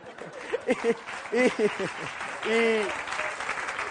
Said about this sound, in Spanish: Me han puesto a mí de pie y todo ese auditorio empieza a aplaudirme.